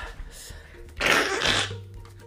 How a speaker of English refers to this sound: Guys, I hate to do this, but a bitch is blowing her nose.